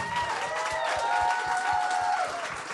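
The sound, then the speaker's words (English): An audience at the Catfish applauds everyone on the stage with dense, continuous clapping, while cheers and high whoops rise above it, sustained and fairly loud throughout. “Can you go for everyone on the stage right now?”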